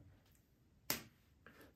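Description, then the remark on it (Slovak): A crisp, sharp finger snap rings out once, bright and loud, followed shortly by a softer second click, with no talking. “Proste luskneš prstom a klient má výsledok.”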